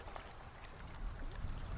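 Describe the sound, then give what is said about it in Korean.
Water sloshes and splashes in a dark river in a broad, steady wash, with a few soft splashes over a low, rumbling flow, growing slightly louder toward the end. No voices. “등 뒤로 조금 전에 들었던 그 이질적인 첨벙 소리가 또다시 들려왔습니다.”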